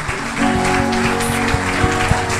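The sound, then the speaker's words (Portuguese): A crowd claps steadily in praise of God in a dense, continuous wash of applause, with sustained keyboard-like tones and a regular low beat running underneath. “Nós aplaudimos o teu nome, Senhor, aplaudimos a palavra.”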